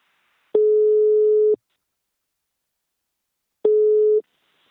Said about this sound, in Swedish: Nu tar vi en kort paus och ringer upp min samarbetspartner Invacare.